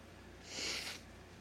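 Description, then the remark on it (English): A person blows their nose once, a short, breathy, hissing burst lasting about half a second, against a quiet background with no talking. “Don't anybody get troubled that I'm blowing my nose.”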